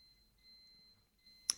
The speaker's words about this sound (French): c'est la fin du lave-vaisselle. D'accord. C'est le bruit du Panthéon. Enlève l'alarme.